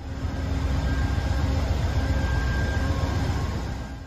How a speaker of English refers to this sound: Orlando is a crew change stop, so our conductors and I presume the engineer have all left the train because new conductors have just got on. As we sit here at Orlando Station, it's turning out to be quite a pleasant evening now.